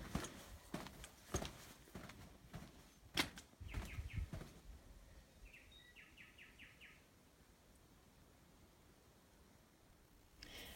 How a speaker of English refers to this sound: Now, that last one was just at the bottom of a flight of steps. Hopefully, you could hear the birds in the background there. So, that was Hatcher's Hill.